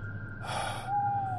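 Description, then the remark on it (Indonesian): A single sharp, breathy gasp, like someone winded and catching their breath after running, bent over holding their knees, with no talking and a low steady hum underneath. “Aku memungkuk, memegang lutut sambil mengatur nafas.”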